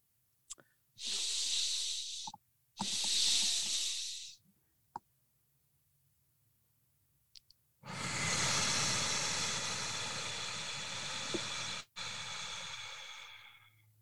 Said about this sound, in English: a physiologic sigh breath to activate these 200 neurons is two stacked nasal inhales